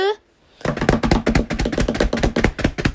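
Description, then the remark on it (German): A quick drumroll tapped out on a tabletop: a loud, steady stream of rapid knocking strikes lasting a couple of seconds, preceded by a brief voiced sound. “Trommelwirbel, äh, Trommelwirbel”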